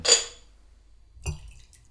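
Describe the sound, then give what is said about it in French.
Hot herbal tea with a few leaves and a little honey being served into a cup: a bright ringing clink of a cup, then after a pause a softer liquid splash and light clatter. No one speaks. “Est-ce que je te sers une petite tisane Ouais pour ta gorge.”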